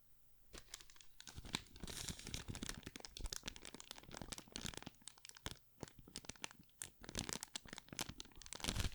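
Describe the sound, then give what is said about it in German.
A folding ruler (Zollstock) is handled right up against a condenser microphone to make ASMR-style noises, producing a dense, irregular stream of sharp clicks, creaks and crinkly snaps, steady in loudness throughout with no voices. “Nee, ist ein Zollstock.”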